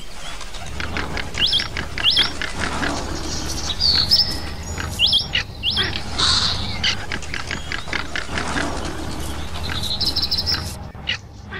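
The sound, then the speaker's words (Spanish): Several birds chirp and call in short, bright bursts, some repeating in quick pairs, over a steady rustling background, moderately loud, with no one speaking. “En aquellos tiempos dicen que en el cielo se organizó una gran fiesta para todos los animales que tenían alas pájaros, cóndores, águilas y otros.”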